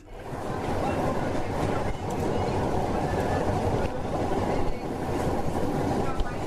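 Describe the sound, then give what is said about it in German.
A steam locomotive running at its working speed of 50, its steady churning exhaust and rolling rumble filling the whole stretch, with a few sharper beats standing out now and then. “Man sagte mir gerade, es wäre ein herrliches Staccato der Auspuffschläge zu hören.”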